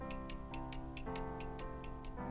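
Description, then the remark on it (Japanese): A wall cuckoo clock in an art museum ticks in a steady, quick rhythm while sustained tonal notes sound alongside, shifting pitch every half second or so, as the cuckoo suddenly calls. Clear, with no voices. “そこで壁掛けの鳩時計がいきなりポッポーと泣いた。”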